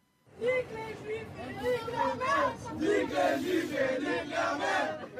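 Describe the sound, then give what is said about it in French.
A crowd of voices chants antisemitic songs together in the Paris metro, in loud, rhythmic unison, the sung phrases rising and falling steadily over several seconds with a dense babble underneath. “On y trouve par exemple des mineurs, parfois impliqués dans des affaires particulièrement marquantes, comme ces chants antisémites dans le métro parisien.”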